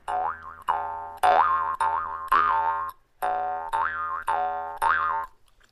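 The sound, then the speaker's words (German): A jaw harp, its long arms held in the mouth, twangs out a bouncy tune, its buzzy drone wobbling up and down in rhythmic plucked bursts, fairly loud, with no voices. “Ähm, man nimmt dann diese langen Schenkel in den Mund.”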